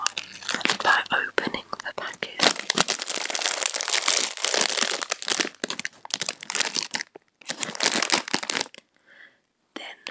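Crisp crinkling and tearing of a packet of chips being opened for ASMR, dense rustling bursts with brief pauses, with soft whispering in places.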